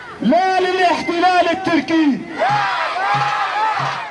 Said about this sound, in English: In the background, we can hear the manifestation. Someone shouts, I say no to Turkey attacks. The rest responds, No, no, no.